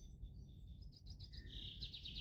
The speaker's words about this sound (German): Hörst du so wie ich verschiedene Vögel oder hier und da ein Rascheln und Knacken unter deinen Füßen von den Blättern und Zweigen? Hörst du vielleicht auch den Wind, der sich seinen Weg durch den Wald sucht?